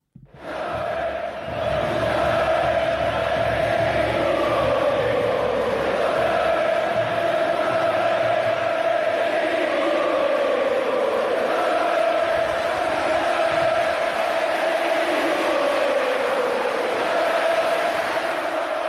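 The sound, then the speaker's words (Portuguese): A large crowd of Racing football fans in Argentina chants in unison, bidding farewell to their former coach. It is a loud, sustained sung melody that rises and falls steadily for the whole stretch, with no break and no individual speech. “Vamos para a Argentina e vamos para a Argentina escutando a, como a torcida do Racing se despediu do seu treinador, ex-treinador, né?”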